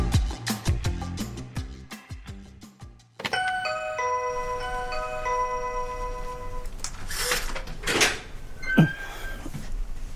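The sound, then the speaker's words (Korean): A house door is opened by the homeowner with a click and a short rattle near the end. Just before it, a bright multi-note doorbell chime rings out after some rhythmic ticking. “문을 열어준 집주인의 얼굴을 보고 승아는 입을 딱 벌렸다”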